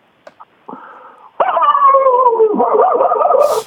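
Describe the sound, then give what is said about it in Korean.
A person imitates a dog as the first of a series of animal impressions: a few faint clicks, a brief whine, then a loud, sustained, wavering dog-like cry that lasts a couple of seconds before ending in a breathy burst. “네, 개부터 할게요.”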